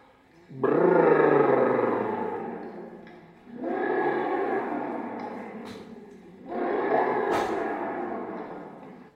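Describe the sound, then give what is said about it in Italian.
A stomach growling in three long, loud rumbles, each lasting a few seconds with short pauses between, low and gurgling with a roaring, drawn-out quality and no talking. “Eh, molti stomaci fanno boa, ma qualcuno ha notato che gli stomaci fanno anche...”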